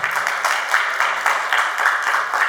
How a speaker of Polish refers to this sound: Wcale niewymuszone brawa mogą się teraz pojawić.